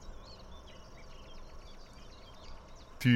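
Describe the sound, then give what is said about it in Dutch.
A common nightingale sings, its quick, varied chirps and whistled notes repeating over a steady hiss of outdoor noise, ending with a brief louder knock. “Dat is een ja. Dat is nachtegaal.”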